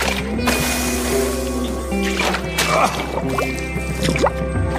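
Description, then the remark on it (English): Liquid splashing and dripping, with a scattering of small irregular splashes and drips over a steady low background hum. “I splashed this on your heart to bring love to the surface.”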